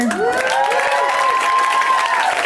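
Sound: audience applause and cheering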